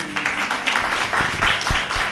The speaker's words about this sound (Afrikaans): Ek dink dit verdien 'n hande klap.